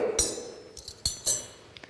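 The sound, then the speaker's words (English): A metal spoon clinks in quick, uneven strikes: three bright, sharp hits with short ringing tails, plus a couple of softer taps in between. No one speaks. “is a spoon.”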